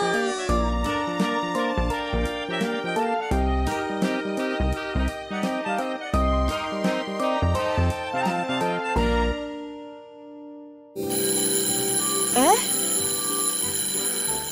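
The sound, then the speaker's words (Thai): A school bell rings out loud, signalling time to go to class, a bright chiming melody of rapid repeated strokes lasting about nine seconds before fading, followed by a brief pause and other busy sounds. “เสียงออดดังแล้ว อุ้ยต้องไปเข้าเรียนแล้วล่ะค่ะ”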